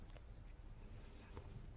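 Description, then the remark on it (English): Soft, quick small footsteps patter across a floor as someone runs to the kitchen, a handful of light taps spaced unevenly over a couple of seconds against a quiet low rumble, with no one speaking. “Little footsteps running to the kitchen.”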